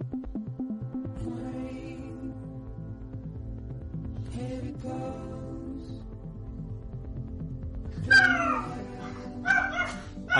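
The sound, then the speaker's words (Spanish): A video game song plays steadily, then near the end a dog breaks in with two loud, sharp barks, a short yelping burst followed by another, sounding over the music. “quedado claro que al perro de Carlos no le gusta.”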